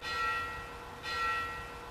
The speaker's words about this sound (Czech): dokonce odbíjí zvon tak máme takovou atmosféru tady k tomu.